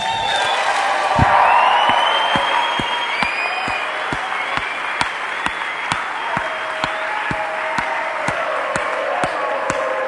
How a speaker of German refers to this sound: Oder all die, einfach die Helfer, und ich glaube, es wäre mal dran, denen einen fetten Applaus zu geben.